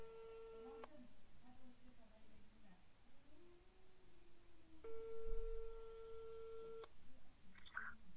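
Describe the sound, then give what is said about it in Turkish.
A steady electronic ringback tone sounds twice through a phone on speakerphone as a call is placed to a friend, each ring lasting about two seconds with a long quiet pause between, fairly faint and slightly tinny. “Ben de bu sırada bir telefonu sessiz alalım tabii. Hoparlörü Ha çalıyor.”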